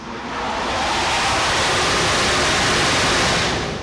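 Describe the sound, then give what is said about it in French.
Ambience on an aircraft carrier's flight deck at sea in the Mediterranean: a loud, steady roar of wind and rushing water that holds constant for the whole stretch, with no voices. “Vous l'entendez, le pont du porte-avions, nous sommes en mer Méditerranée”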